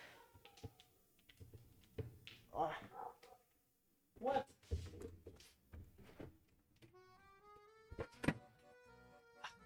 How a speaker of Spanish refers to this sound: ¿Qué onda? Estuvo súper dura esa puerta.